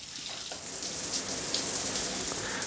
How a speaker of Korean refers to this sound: 초스피드로 샤워를 하고 머리도 말리고 얼굴에 수분크림까지 쫙 바르자